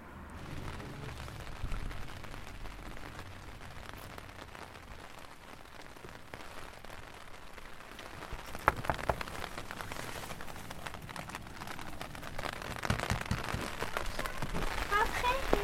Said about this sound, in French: C'est un peu la tempête. Ouais, il fait pas beau et tout.